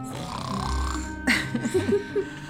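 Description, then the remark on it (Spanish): A voice imitates a little sheep snoring sweetly, one snore after another: a low, raspy, throaty rumble lasting about a second, followed by a sharp breathy burst and several short voiced grunts, moderately loud. “La ovejita roncaba dulcemente bajo su oreja, un ronquido tras otro.”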